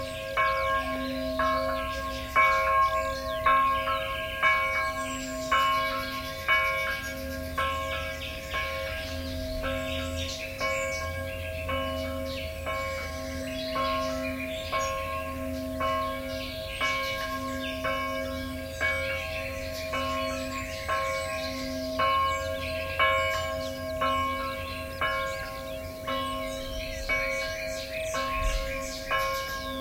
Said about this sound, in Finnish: Kello on kahdeksan illalla. Iltakellojen lisäksi kirkon kellot soittavat aamukellot kello viisi ja keskipäivän.